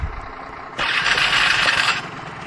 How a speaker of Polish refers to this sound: Tam teraz posłuchajcie jak zapala pięknie Aprilia. Aha, muszę ją włączyć, tak. No i zapala.